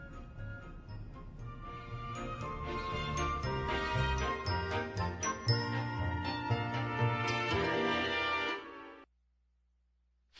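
An instrumental song intro plays, bright chiming tones layered over a steady, full-bodied backing, loud and close for about nine seconds before cutting abruptly to silence. No voices are heard.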